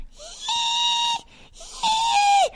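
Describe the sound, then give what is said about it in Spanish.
A person vocally imitates lobsters crying as they are put into boiling water: two long, high, strained squealing cries with a breath between them, the second bending downward in pitch at its end. “cuando las meten en la, el agua hirviendo, lloran horrible. ¿Cómo lloran? así.”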